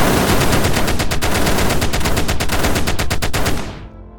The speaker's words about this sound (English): A spray of machine gun fire follows the boys out the window.